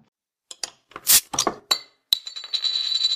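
Glasses clink together in a toast: a few quick bright taps and jostles, then a final sharp clink that rings on with a sustained glassy tone, fairly loud, with no voices.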